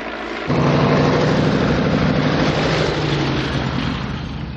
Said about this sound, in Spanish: Una avioneta amarilla vuela sobre ellos. Karen se apresura a montar en su caballo. El avión se dispone a aterrizar en una esplanada.